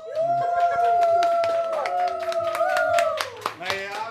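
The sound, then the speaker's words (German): Excited cheering with a sustained high whoop or howl-like shout over dense, irregular clapping from a small group celebrating finishing an escape room game, loud throughout and settling slightly at the end. “Wir haben die Welt gerettet. Ja, großer Jubel.”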